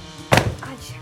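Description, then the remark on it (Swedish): A single heavy, loud thud as a man falls off a chair and lands on the floor, while the ladder of an opened ceiling hatch swings down and hits the floor beside him, with a short rattling tail, then fading into quiet room tone. “Han faller av stolen och landar med en duns i golvet.”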